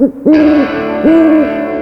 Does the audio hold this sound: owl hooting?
yes